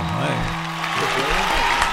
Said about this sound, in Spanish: aplauso.